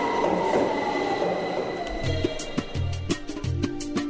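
A subway train rumbles past, steady low roar with rhythmic clanks and sharp metallic clicks from the wheels, growing busier toward the end; no voices.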